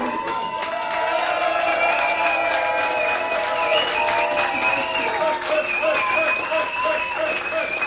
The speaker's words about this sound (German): Ein Glück, dass Sie jetzt aufhören zu klatschen